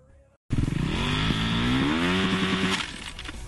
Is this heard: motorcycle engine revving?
yes